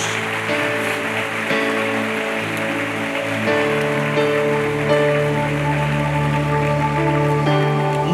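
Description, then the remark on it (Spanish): An audience applauds for Christ steadily for several seconds, a dense, continuous wash of clapping with sustained musical tones droning underneath and no one speaking. “Y dé un aplauso a ese Cristo a quien predicamos.”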